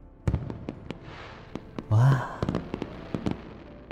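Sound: fireworks exploding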